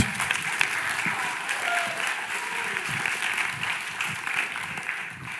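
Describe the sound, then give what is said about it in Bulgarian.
A crowd claps steadily for several seconds, a dense, even wash of many hands with no pauses. It stays fairly loud and consistent throughout, with no voices standing out. “ръкопляскането ви е болно от маймунски грип.”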